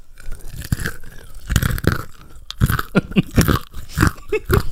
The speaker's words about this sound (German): Du darfst einen essen. Boah, okay, nur eine ganze Handvoll. jetzt musst du aber auch ASMR-mäßig kauen.